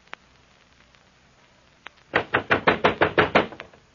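A rapid, insistent run of about eight loud knocks on the wooden door to Francesca's room, evenly paced, following a couple of faint isolated taps in near silence.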